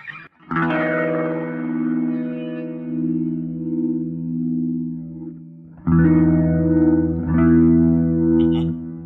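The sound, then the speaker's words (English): Sustained guitar chords played through a swirling rotary speaker effect, its horn balance set in the middle position, the tone wavering and pulsing as it rings out, with a fresh strum near the end. No one speaks. “with the rotary speaker, here is the low high balance. Just check it out.”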